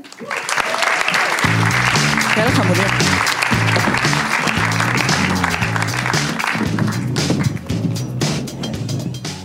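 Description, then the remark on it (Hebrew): A live audience on stage claps steadily for several seconds to welcome a guest for a live interview, a dense, loud wash of applause with a few voices speaking briefly over it and some low musical tones underneath. “בואו נמחא כפיים.”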